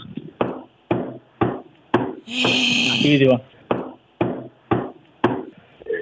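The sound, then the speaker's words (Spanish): A steady series of dull knocks imitating footsteps upstairs in an empty two-storey house, about a dozen evenly spaced thumps, briefly interrupted midway by a short voice and a noisy scraping burst. “Y empezaron a irse los pasos”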